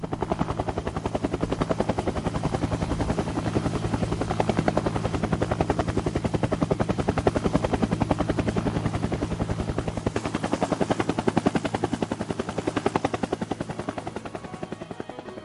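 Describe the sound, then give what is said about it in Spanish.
A helicopter's rotor beats steadily and loudly for the whole stretch, a rapid, even chopping over a low engine drone, with no voices present; photographer Jan Artus Bertrand rides in it at various sites around the world. “Jan Artus Bertrand Sube al helicóptero en diversos sitios del mundo, en climas y paisajes variados.”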